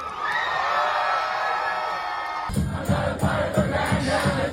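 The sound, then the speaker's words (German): A dense crowd on a New York subway platform roars and cheers for the whole clip at a band's surprise concert. Midway through, loud rhythmic band music with pounding drums and amplified guitar kicks in beneath the steady crowd noise. “War eine Riesenparty da auf dem Bahnsteig.”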